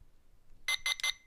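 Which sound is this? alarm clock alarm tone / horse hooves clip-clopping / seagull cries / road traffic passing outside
alarm clock alarm tone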